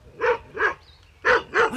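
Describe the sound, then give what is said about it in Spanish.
A dog named Chimuelo barks at a visitor four times, in two quick pairs separated by a short pause, each bark sharp and loud with no one talking. “Canijo chimuelo, me ladras como si no me conocieras.”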